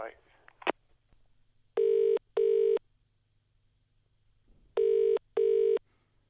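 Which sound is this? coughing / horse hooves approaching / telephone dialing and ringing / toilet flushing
telephone dialing and ringing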